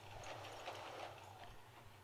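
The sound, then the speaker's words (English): Faint, steady clopping of a horse's hooves passing by, a regular rhythmic tapping over a low background rumble with no voices. “Oh, it's a horse going past”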